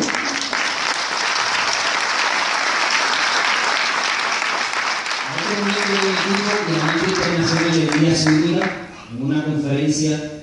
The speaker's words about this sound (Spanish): Si pido un fuerte aplauso el equipo.